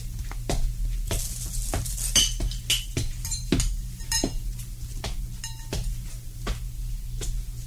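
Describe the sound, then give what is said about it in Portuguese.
Glass clinks and taps repeatedly in an irregular rhythm, bright and light, as a drink of whisky is poured for another sip, over a steady low hum with no voices. “Puxa, mas olha, você me assustou tanto com seus berros que eu, eu vou tomar mais um gole.”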